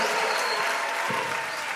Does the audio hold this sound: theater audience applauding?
yes